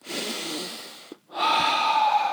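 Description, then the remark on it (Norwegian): A long, deep breath drawn in, followed after a brief pause by another airy, slightly wheezy breath. No talking, just the breathing. “Menneskebane tar nemlig sitt første åndedrag, sin første innpust”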